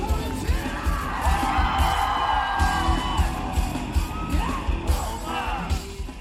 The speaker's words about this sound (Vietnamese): Khán giả và ca sĩ nhạc rock hòa làm một, cùng reo hò, vỗ tay tán thưởng, cùng nhảy bật lên, nhảy lắc lư theo nhạc khiến con tim mỗi người nóng lên theo từng giây từng phút.